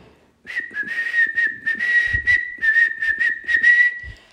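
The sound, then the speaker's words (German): A steady whistle through the teeth holds one high pitch for about four seconds, with breathy hissing bursts pulsing rhythmically over the tone and no talking. “Ich kann mit meinen Zähnen gut pfeifen.”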